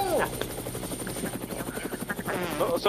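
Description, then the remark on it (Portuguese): A helicopter's rotor thumps in a fast, steady rhythm with a constant engine drone, loud throughout, while a person inside the helicopter talks over the noise as it flies over the city of Engenheiro Coelho. “tô tá no helicóptero, quando eu sempre estou, Sim.”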